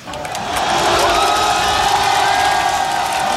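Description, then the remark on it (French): A big stadium crowd of French rugby fans roars and cheers continuously as the referee blows the final whistle on a victory for Les Bleus, a loud sustained wall of shouting and whoops that swells in the first half-second and holds steady. “Je propose d'écouter la réaction du public français lorsque l'arbitre du match a sifflé la fin du temps réglementaire et la victoire des Bleus.”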